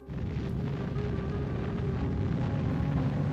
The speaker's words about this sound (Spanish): Cuando se detonó la bomba Trinity, liberó el equivalente a 21.000 toneladas de TNT, es decir, un poco más que la bomba nuclear que lanzaron sobre Hiroshima en la Segunda Guerra Mundial.